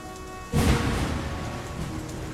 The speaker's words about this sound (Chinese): 几道闪电划过，猛烈的暴风雨随之而来。